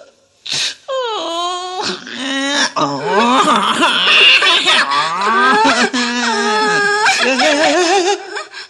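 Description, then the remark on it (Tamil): A chorus of frightened wild forest animals' cries and wails overlaps for several seconds, loud, with drawn-out moaning calls rising and falling, some resembling bellowing or mooing, and no talking. “காட்டு விலங்குகள் கலங்கின கொஞ்சம் பயந்தன உடல் நடுங்கின ஆவி ஒடுங்கின நீல நரியின் வாசல் வந்து ஓலமிட்டு அழுதன”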